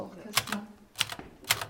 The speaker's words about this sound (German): Wer will, kann an Kästners Schreibtisch sitzen und auf seiner Schreibmaschine tippen.